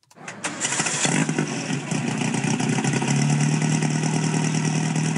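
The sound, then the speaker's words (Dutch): The four-cam engine of a 1955 550 Spider sports car cranks briefly and fires up, catching within a second, then settles into a loud, steady, rumbling idle with a low throbbing tone and no voices. “Four Cam Engine. Mooi hè?”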